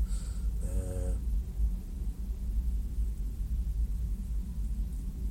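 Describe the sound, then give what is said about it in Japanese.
A tank drives past next door, a deep, heavy, continuous drone that holds steady throughout, with a brief higher squeal near the start. “今ちょっと雑音がちょっと入ってますけども、えね、こう今隣はあの戦車が戦車がねこう走ってこう行ってくれましたので”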